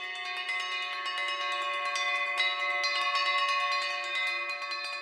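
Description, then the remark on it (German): Several bells of a bell instrument ensemble are struck in quick succession, their bright metallic tones overlapping into a sustained, shimmering ring. Steady and moderately loud, with no voices. “Nun ist das Besondere am Improvisieren oder am Stücke kreieren mit Glocken, dass sobald ich einen Ton anschlage mit einer Glocke, bin ich sofort umhüllt mit Klang.”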